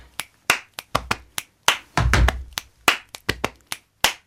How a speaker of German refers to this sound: Also ich habe auf den Brustkorb geklopft, in die Hände geklatscht, geschnipst und mit den Füßen gestampft. Alles das und noch viel mehr kann man mit dem Körper anstellen.